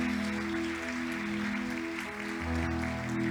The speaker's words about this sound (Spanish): Así es que gloria a Dios, bendito sea el Señor. Un aplauso para nuestro precioso Dios.